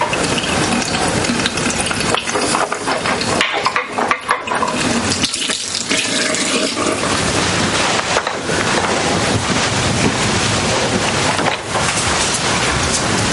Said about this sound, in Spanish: Llena un vaso de agua y se enjuaga.